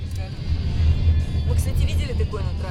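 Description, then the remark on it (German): A car drives steadily along a road through wheat fields on both sides under a deep-blue sky, heading to a village, its low engine and road rumble continuous and fairly loud throughout, with faint indistinct voices murmuring in the background. “Am nächsten Tag fahren wir zum Dorf, in dem meine Oma gelebt hat.”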